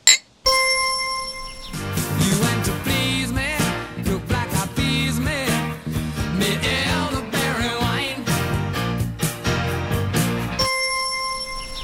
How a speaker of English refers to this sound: It's... let's do a cheers one more time on microphone.